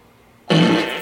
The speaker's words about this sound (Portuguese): Peido explosivo.